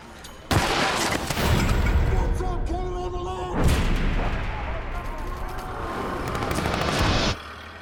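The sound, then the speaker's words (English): Loud, sharp bangs of a car engine backfiring burst out suddenly and keep cracking and rumbling for several seconds, harsh, with a faint voice briefly audible through the noise. “It's just a car. It must have backfired.”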